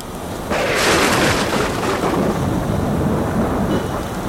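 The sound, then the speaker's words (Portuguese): A loud thunderstorm at sea: a deep rolling thunder rumble breaks in after a moment over steady, hissing heavy rain, then lingers and slowly fades while the rain keeps pouring. “Não tinha viajado muito quando uma tempestade desabou.”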